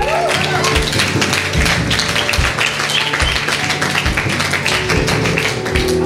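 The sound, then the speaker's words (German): A church audience claps steadily for about six seconds, celebrating God, a dense, loud wash of many hands with some voices faintly mixed underneath. “Da kann man auch mal klatschen, ja?”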